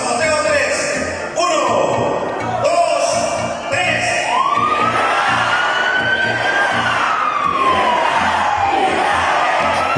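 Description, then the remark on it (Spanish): An alarm siren wails with a slow rising and falling tone over a loud, cheering crowd, sounding steadily for several seconds while voices shout underneath. “La alarma.”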